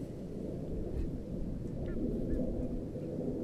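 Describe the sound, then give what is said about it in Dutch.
A few short bird calls ring out close by from somewhere in the reeds, brief honking or chirping notes over a steady, rumbling wind noise, with no one speaking. “Nu zijn er vogels te horen. Die zitten heel dichtbij, anders zou ze niet kunnen horen.”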